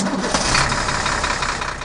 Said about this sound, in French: Mais qu'est-ce qui se passe après que les camions poubelles sont passés